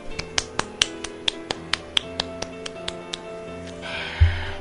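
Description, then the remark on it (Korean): A steady run of sharp, close claps, roughly seventeen in quick even rhythm, like one person clapping along, ending with a brief burst of noisy rustle and a low thump. “와, 근데 여러분 박수!”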